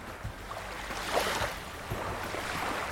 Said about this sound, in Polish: Mamy tu również do wyboru dźwięk. Fale oceanu są ustawione domyślnie.